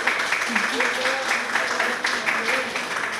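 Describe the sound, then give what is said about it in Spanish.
Steady audience applause, a dense crackle of many hands clapping and holding an even level throughout, with faint voices murmuring beneath it. “Les pido un aplauso por favor”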